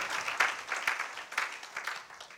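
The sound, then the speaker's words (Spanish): An audience breaks into applause for the Lord, a dense, steady wash of many hands clapping with a few sharper individual claps popping out, fairly loud and sustained throughout. “Y aunque hoy quiere darle un aplauso al Señor, démoselo al Señor por esa promesa.”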